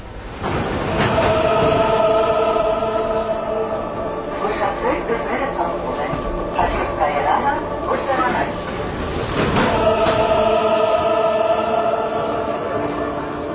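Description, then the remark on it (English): A metro train in Armenia rumbles steadily with a droning hum and a couple of sharp clunks, while indistinct voices murmur in the carriage. “if you are there, find out is there some metro and please make some records.”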